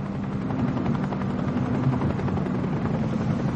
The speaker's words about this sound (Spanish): Ellen observa el helicóptero.